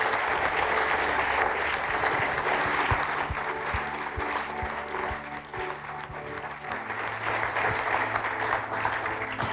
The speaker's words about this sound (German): Lass uns der Andrea ganz einen grossen Applaus geben.